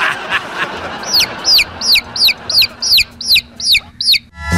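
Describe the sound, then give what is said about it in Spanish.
A chicken clucks in a quick, steady series of about eight sharp, high calls, evenly spaced, over a low background rumble, in a commercial for an income tax service. “Para eso está el pollito Income Tax.”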